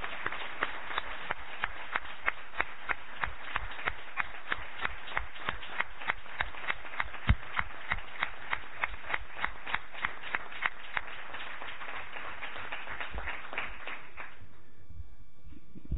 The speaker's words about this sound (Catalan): aplaudiments